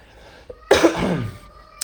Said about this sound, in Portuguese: Estou um pouquinho mal, tô tossindo, mas tá valendo.